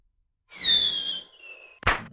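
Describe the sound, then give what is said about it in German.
A voice imitates a bird-scarer cannon: a high falling whistle lasting about a second, then a single sharp mouth-made bang. “ob er das ist, der da andauernd knallt. Ich habe gedacht, das wäre irgendein Vogelschreck”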